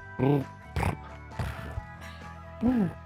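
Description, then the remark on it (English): A person imitates a cat's purr with their voice into a microphone, producing several short, rough grunting bursts separated by brief pauses, coming out more like snorts than a smooth purr. “That's a cat purr right?”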